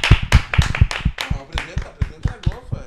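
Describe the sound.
A quick, steady run of hand claps, about a dozen sharp slaps in a brisk rhythm, close and fairly loud, with faint voices murmuring underneath.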